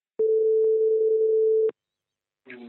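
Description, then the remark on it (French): A telephone ringback tone sounds once while a call is placed to the Images Photo Lyon shop: a steady, mid-pitched hum lasting about a second and a half, followed by silence before a voice starts up at the end. “On l'appelle tout de suite.”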